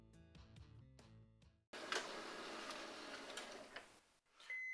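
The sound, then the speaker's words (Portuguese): A printer whirs and rattles steadily for a couple of seconds, then abruptly stops again, followed by a short high electronic beep. A few tonal chiming notes come just before it starts. “Ah, não, sem impressora parou de novo.”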